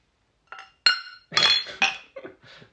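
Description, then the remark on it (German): Several beer glasses clink together in quick succession, bright ringing taps, a cluster of about five or six chimes spread over a couple of seconds as a group toast. “Das haben wir eben schon geöffnet und angestoßen.”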